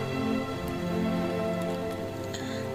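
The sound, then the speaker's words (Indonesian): Steady rain patters against a window glass in a continuous, even wash, moderately loud, with faint scattered drips and a low hum underneath; no one speaks. “Ternyata hujan di jendela seakan mengejek saya yang sedang kebingungan dengan perasaan saya sendiri.”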